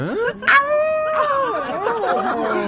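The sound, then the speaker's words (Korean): At a desert camp at night, a person mimics a wolf howl with long, wavering drawn-out tones that rise and slide, sung loudly for a few seconds with no other sounds around it. “말에, 양떼, 염소떼, 낙타에 늑대도 있다던데.”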